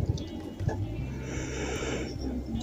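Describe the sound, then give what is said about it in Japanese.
A person lets out a long, breathy yawn with a low voiced groan running through it, swelling briefly and then fading out over a couple of seconds. “あくびが出ました。”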